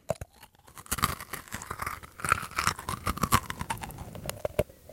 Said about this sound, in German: Ich probiere jetzt glutenfreie, vegane Schoko-Cookies. Klingt staubtrocken.